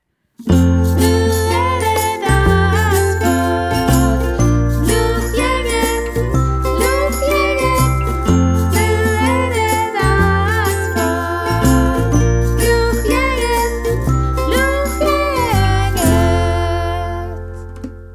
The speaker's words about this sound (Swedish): Hör ni vilken radiokänsla vi har idag? Eh, en vinjett på det.